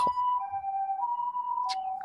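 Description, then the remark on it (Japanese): A loud two-tone ambulance siren sounds close by as the ambulance passes alongside, its wail alternating steadily between a higher and a slightly lower pitch, with no voices over it. “あ、救急車だ。近”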